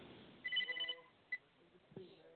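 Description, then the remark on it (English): A telephone rings once with a short, bright electronic trill, followed by a brief chirp, sounding thin and slightly muffled over a low background murmur. “The phone is ringing. I hear the phone ring.”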